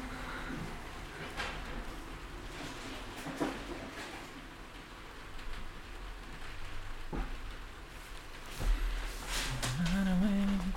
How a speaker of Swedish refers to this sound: All, allt hörs så mycket bättre. Regnet hörs jättetydligt.